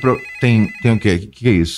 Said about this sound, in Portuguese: Isso é um telefone.